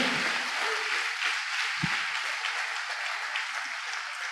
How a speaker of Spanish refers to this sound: Denle ese aplauso al Señor Jesucristo. Aleluya.